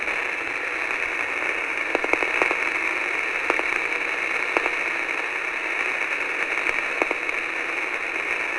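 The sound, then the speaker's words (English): Steady hissing radio static with a scattering of sharp crackles and pops every second or two, filling the whole stretch with no voices and no clear tone standing out, as a listener waits for a faint beep. “You're trying to listen for a beep, okay?”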